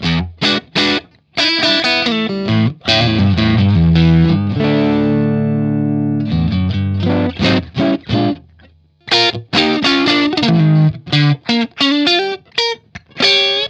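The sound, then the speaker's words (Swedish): An electric guitar runs through a compressor pedal set like a simple 1176 compressor, pushed into slight clipping: quick plucked notes and chords, one chord left ringing mid-way, steady and fairly loud with a gritty edge. No one speaks. “Det är nästan Precis, så att den styr, vi, ö, ja, den styr lite, över lite. lite klipp.”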